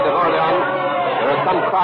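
A dense crowd of many voices shouting and clamoring together, loud and continuous throughout, with no single voice standing out from the steady roar.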